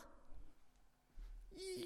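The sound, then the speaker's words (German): A person imitates a dog barking with a few short, gruff vocal barks, fairly quiet, ending on a higher, more drawn-out yelp-like sound. “Wuff, wuff, wuff, wuff.”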